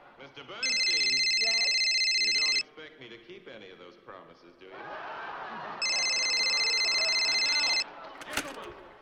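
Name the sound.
cell phone ringing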